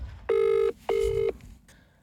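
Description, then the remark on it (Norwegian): Two loud, steady ringback tones, each lasting under half a second with a short gap between, heard clearly and alone, as an outgoing phone call to a spokesman for the Kurdish self-governing authorities in northeast Syria waits to connect. “En måned senere ringer vi Abdelkarim Omar.”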